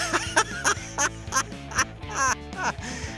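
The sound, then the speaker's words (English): Dogs bark in a rapid, steady string of sharp, fairly loud yaps, about eight in three seconds, with no gaps of silence in between. “Honestly, I can hear dogs barking”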